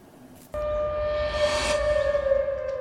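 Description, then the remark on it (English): An early-morning civil defense warning siren in Seoul or Okinawa, warning residents of a North Korean military satellite launch, starts abruptly and holds a loud, steady wailing tone with rich overtones, swelling slightly, echoing outdoors over low background rumble. “Early morning sirens in both Seoul and Okinawa warned residents of North Korea's latest launch.”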